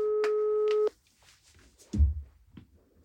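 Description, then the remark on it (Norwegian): A phone ringback tone sounds once on a call that goes unanswered, a steady electronic hum lasting just under a second, then cuts out into near silence broken by a soft low thump and faint rustling. “Så tar hun den ikke.”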